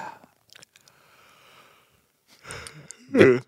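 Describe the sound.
A faint, drawn-out breath in, then a louder, airy exhale, ending with a brief voiced sound.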